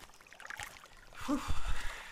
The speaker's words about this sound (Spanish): Con solo pensar en ella, que corre por la vertiente que cruza el bosque, su sed se acrecienta y apura el paso, acostumbrado a robar de la tierra un poco de sus lágrimas para beber. A 50 metros de haber caminado siguiendo el ruido del agua corriendo.